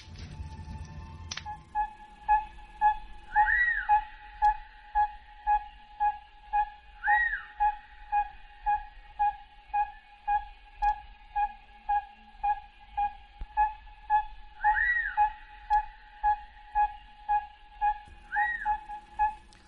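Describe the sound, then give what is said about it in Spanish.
An owl calls at night with a long, steady series of evenly spaced, mellow tooting hoots, now and then broken by a brief higher squeaky note, clear and fairly close with no one talking. “porque el búho siempre está en la noche escondido y suena más o menos así mira escucha cómo suena este este búho el supuesto chonchón.”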